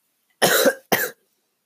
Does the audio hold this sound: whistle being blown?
no